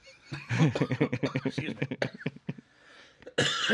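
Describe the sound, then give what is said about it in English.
A loud coughing fit after taking a big hit of cannabis: a rapid string of harsh, raspy hacks that trails off into a brief pause, then one more forceful burst of coughing at the end. “You got to hear the cough.”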